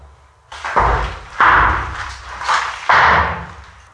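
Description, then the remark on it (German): Four heavy, hollow knocks on a wooden floor, falling loosely in two pairs, each a loud low thud with a short resonant ring and no voices. “Holzfußboden.”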